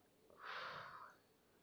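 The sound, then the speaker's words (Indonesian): A single deep, audible inhale drawn in through the mouth by someone lying down at half past eleven at night, swelling over about a second before fading into quiet. No one speaks. “tarik nafas dulu”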